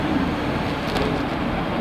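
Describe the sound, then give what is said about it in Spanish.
A steady, loud rumbling drone from inside a moving subway train, with a constant low roar and no voices. “estamos acá dentro del subte.”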